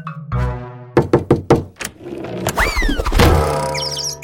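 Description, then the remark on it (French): A person who did not see a door bumps into it: a quick series of hard knocks and thuds, followed by a bright whistling swoop like a cartoon impact effect, with no talking. “Ah, je me suis cogné. J'avais pas bien vu la porte.”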